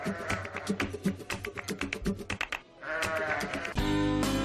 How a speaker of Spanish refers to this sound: Aquellos rebaños de las ovejas de la transhumancia que aunque sea recordamos en este sonido.